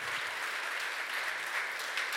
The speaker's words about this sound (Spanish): Y si está de acuerdo conmigo, ahora sí le invito a que le dé un fuerte aplauso al Señor. Bien fuerte. Porque Dios es bueno.